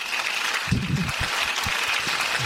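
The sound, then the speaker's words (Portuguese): Steady applause from an audience at the Autoajuda awards ceremony, a dense wash of many hands clapping at an even, sustained level, with a few low murmurs of voices poking through. “Parem de aplaudir, por favor.”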